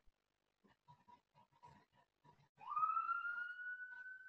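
A few short, choppy grunting bursts, then an ambulance siren swells up loudly and holds a steady, rising wail to the end, clear with no talking.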